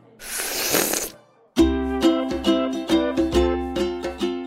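A single loud, wet slurp of ramen noodles from a bowl lasting about a second, then a brief pause before a bright musical jingle with plucked, rhythmic notes takes over.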